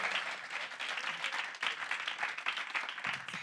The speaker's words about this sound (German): Lass uns auch nochmal der Band einen fetten Applaus geben.